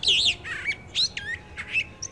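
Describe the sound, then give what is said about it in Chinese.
A magpie, startled awake by a small cat, flaps off toward another tree giving a string of harsh, chattering calls: about five quick, high-pitched squawking bursts in a rapid, uneven rhythm, heard alone with no talking. “正在做梦的花喜鹊被不速之客小花猫给吓醒啦，它连忙扇动着翅膀，朝另一棵大树飞去，一边飞。”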